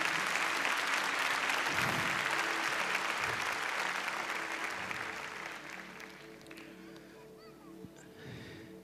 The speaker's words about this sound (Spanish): ¿Sí? Denle un fuerte aplauso a nuestro Señor.